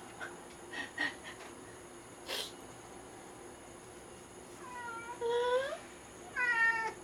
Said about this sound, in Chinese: 我们家的猫在叫。